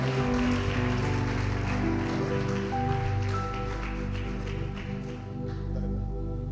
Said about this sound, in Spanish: Y le pido que le dé un aplauso al Señor por su vida.